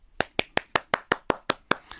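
A girl claps her hands about ten times in a quick, steady rhythm, each clap a sharp, bright smack with no voices alongside.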